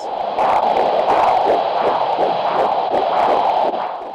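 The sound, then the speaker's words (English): A fast, steady whooshing prenatal heartbeat of a 14-week fetus pulses through a soft hiss, like a heartbeat picked up on a Doppler monitor, loud with a regular rapid rhythm and no voices. “Her gestational age was 14 weeks when I recorded her prenatal heartbeat.”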